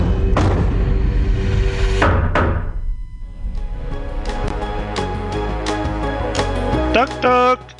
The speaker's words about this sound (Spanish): ¿quién es? Llaman a la puerta, llaman a la puerta